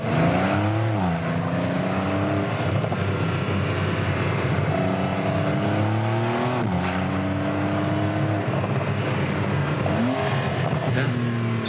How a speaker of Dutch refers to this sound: we hebben ook het allereerste geluid van de nieuwe 3 liter boxermotor.